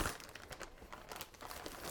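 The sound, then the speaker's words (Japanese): Cooking paper crinkles and rustles continuously as ingredients are wrapped in it in a kitchen, making a wrapped steamed dish to be heated in a microwave, with bursts of crisp crackling in an uneven rhythm, fairly loud and bright, with no voices. “今日はキッチンにいます最近ハマっている包み蒸しを作りますクッキングシートで具材を包んで電子レンジで加熱するだけという大変手軽なメニューです”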